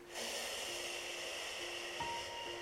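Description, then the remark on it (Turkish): A long, steady breath pushed out through the mouth after a big inhale, an airy whoosh that holds for a few seconds over faint sustained background tones. “Ve verirken”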